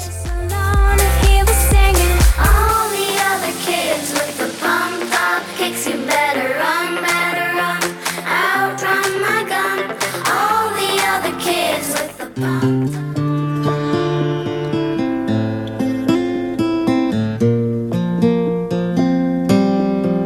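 A rock song intro plays loud on the radio station Atmósfera Radio 105, opening with a heavy low-end burst before melodic guitar lines take over, then shifting into a steadier band groove partway through.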